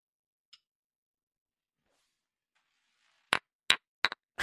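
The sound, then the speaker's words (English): Two wooden gavels bang together in a quick run of about five sharp, loud knocks after a long near-silent stretch, with no voices. “It's the sound of two gavels banging.”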